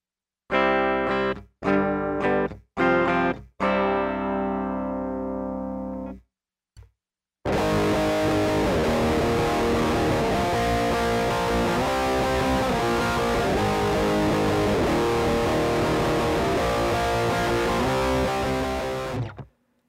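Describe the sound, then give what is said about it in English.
An electric guitar with EMG 81 active pickups plays four short clean strummed chords, pauses, then launches into a long, loud, heavily distorted riff that rings on for about twelve seconds; no voices. “I mean, the active pickups, especially when played clean, I always thought they sounded more bright.”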